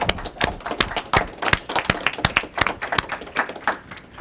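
An audience claps in welcome: many sharp, overlapping hand claps in a quick, uneven patter that holds steady for a few seconds without fading, with no one speaking.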